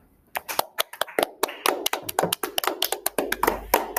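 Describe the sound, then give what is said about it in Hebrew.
A burst of hand clapping, quick sharp claps at an uneven rhythm, fairly steady in loudness for several seconds, with a faint low rumble toward the end and no voices. “כמו תמיד, בפינה שלנו יסוד בשבוע, נראיין היום את פרנציום כפיים.”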